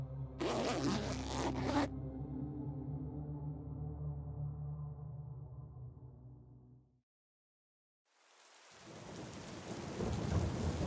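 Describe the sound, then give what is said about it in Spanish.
A tent zipper rasps down in one quick pull lasting under two seconds, on a hilltop in the middle of a forest, over a low rumbling drone that fades into a brief silence before a steady rain-like hiss sets in. “Esto era imposible, y más porque los pasos no dejaron de escucharse hasta el momento en que bajé el cierre de la tienda.”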